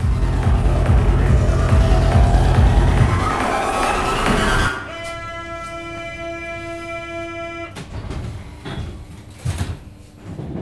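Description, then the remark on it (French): Inside a moving RER E commuter train: a loud, steady rolling rumble gives way to a sustained multi-tone whine lasting a few seconds, followed by a few sharp clunks and rattles. “je suis dans le RER e pour aller chez les Ramps”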